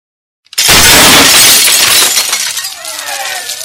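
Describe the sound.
Glass shatters loudly after a moment of silence, a sudden crash followed by a long spray of tinkling shards that slowly thins out while a voice begins speaking underneath.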